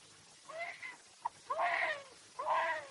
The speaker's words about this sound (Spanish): Al oír el llanto del bebé, se pone nervioso.